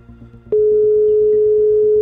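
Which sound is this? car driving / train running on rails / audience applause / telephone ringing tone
telephone ringing tone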